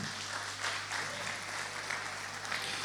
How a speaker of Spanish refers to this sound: Pero tenemos gente, muchas gracias chicos. Un aplauso para ellos.